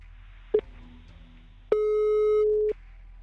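signal or alarm, telephone ringing tone

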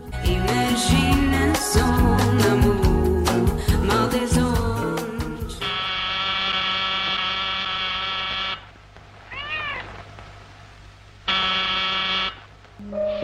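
household object, telephone ringing

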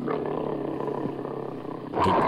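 animal, lion roaring

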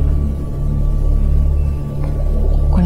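animal, whale song

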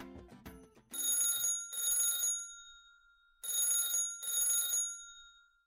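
signal or alarm, telephone ringing

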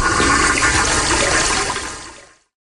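household object, toilet flushing

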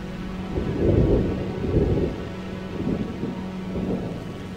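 nature, thunderstorm with rain

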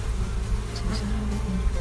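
insect, honeybees buzzing around beehives

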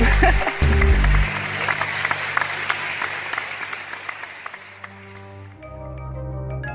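crowd, audience clapping

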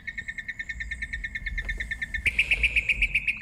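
bird, mockingbird singing

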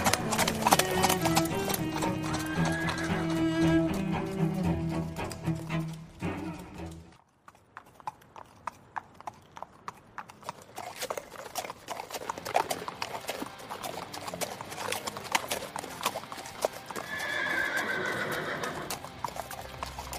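animal, horses galloping and neighing

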